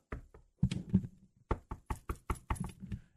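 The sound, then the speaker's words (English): Someone knocks loudly on a door: a few scattered raps, a brief pause, then a quick, steady run of about eight sharp knocks, with no voices. “Hold on, Theo. Let me get the door.”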